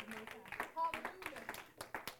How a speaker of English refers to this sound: we're a little off a little bit here. Got some clapping, double clapping. Come on now. Got to get things together.